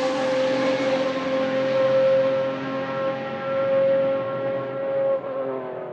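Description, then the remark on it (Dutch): A 12-cylinder car engine droning loudly at high revs with a steady, buzzing pitch, then briefly dipping and picking up again near the end as it downshifts. No talking. “Ja, ook dat terugschakelen.”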